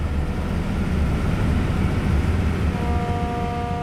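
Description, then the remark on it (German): A historic railway train running from Schelklingen to Grafeneck rumbles along in a steady, loud roar of engine and track noise as it climbs the Münsinger Alb, gaining 180 metres of elevation, with a thin tonal whine joining in near the end. No voices are heard. “Ich fahre mit der historischen Eisenbahn von Schelklingen dorthin.”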